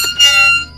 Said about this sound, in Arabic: فرحت في النوم تاني مرة تانية صحيت من النوم على صوت صرير الباب